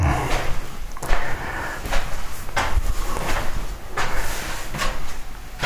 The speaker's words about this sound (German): So, schließen wir mal das Fenster. So, alles gut. Ist zu? Ja. Ja, ist auch wirklich ganz zu.